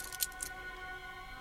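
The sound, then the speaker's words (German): A few quick, faint metallic clinks and scrapes of a key fumbling at a house's front door lock, bunched in the first half-second, then only a quiet steady background hum. “Den Schlüssel hier, den Schlüssel. Schnell rein.”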